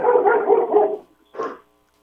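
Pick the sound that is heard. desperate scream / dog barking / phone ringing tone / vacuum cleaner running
dog barking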